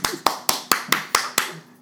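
Applause as seven sharp, crisp hand claps in a steady, quick rhythm, each one snapping out and fading fast before the next, then stopping.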